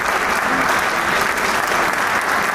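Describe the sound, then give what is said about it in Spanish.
Steady, dense applause from a large concert audience for conductor Borja Pareja and all the members of Camerata after a concert piece, an even wash of many hands clapping at once without pause, with a faint murmur of voices underneath. “Entonces, doble mérito para nuestro Borja Pareja quien recibe el aplauso del público, al igual que todos los miembros de Camerata”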